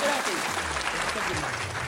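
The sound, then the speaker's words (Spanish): Steady, dense applause from a crowd fills the whole two seconds, loud and continuous, with faint voices mixed underneath. “Ay, Dios mío, otra vez aplauso.”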